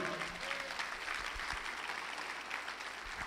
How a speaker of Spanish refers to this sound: El que lo crea, dele un aplauso a Jesús.